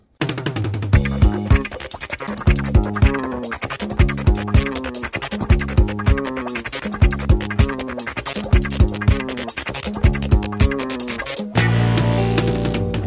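A song's instrumental intro from a film soundtrack plays loud, with a steady rhythmic pulse and full harmonic chords. Near the end it shifts into a sustained, denser passage. No voices are heard.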